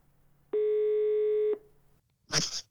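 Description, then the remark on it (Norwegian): A single one-second telephone ringing tone, steady and buzzy, sounds over a faint line hum as Radio Nova places a call to the Esso station in Kvelde, followed after a short pause by a brief rustling burst like the line being picked up. “Vi kan jo ringe Esso Kvelde òg, da.”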